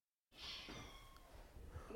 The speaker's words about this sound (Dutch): Oh, poes, niet beginnen hè. Het was op om buiten. Want eh, poes, want ik wil geen miauw in mijn podcast.